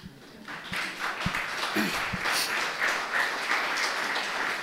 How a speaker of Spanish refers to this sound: Ese es medio aplauso. Dije, dese un aplauso fuerte.